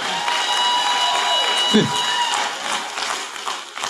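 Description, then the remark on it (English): Audience clapping fills the whole stretch as a steady, even wash of hand claps, with a brief murmur of a voice rising partway through before the applause continues. “now it's just sympathy clapping.”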